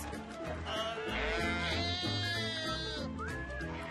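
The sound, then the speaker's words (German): Sheep bleat repeatedly and overlapping, several animals calling loudly, with wavering, quavering cries over a steady background wash of splashing water as the sheep are washed in the Atlantic sea waves in Senegal. “Schaf-Wäsche im Meer”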